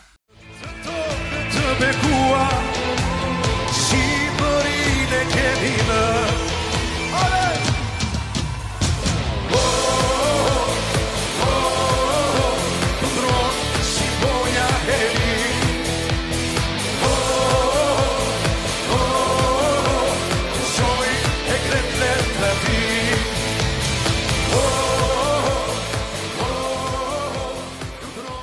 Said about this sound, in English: This is stirring, it's nationalistic. It sounds like something that Georgia might send to Eurovision